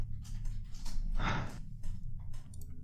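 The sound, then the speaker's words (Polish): Several deep breaths drawn in and out, one louder and longer breath in the middle, with softer breaths around it over a faint low hum. No talking. “Biorę kilka głębszych oddechów”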